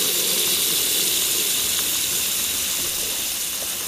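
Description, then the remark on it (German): Heavy rain pours down outdoors in a dense, steady hiss, loud, with faint patters and drips scattered through it and no voices. “Es regnet ziemlich fies.”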